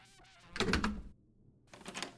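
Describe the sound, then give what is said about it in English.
A quick cluster of solid knocks on a wooden door, followed after a short pause by a second, slightly softer burst of knocking. “Knock, knock.”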